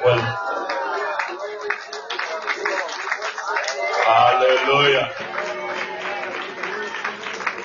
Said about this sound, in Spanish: 10 segundos de alabanza con un aplauso